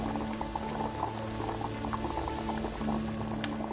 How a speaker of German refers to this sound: Was, du fauchst? Bestie. Willst du mir Angst machen? Bist doch eine gute Kaffeemaschine, nicht wahr?